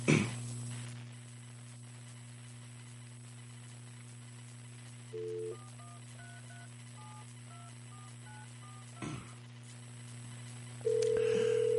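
A telephone handset hums with a steady dial tone, then a quick series of touch-tone beeps is dialed, followed by a click and the start of a ringing tone on the line.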